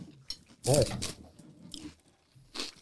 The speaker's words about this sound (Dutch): Ik smak in de microfoon. Ja, dat mag wel. Jij mag dat wel.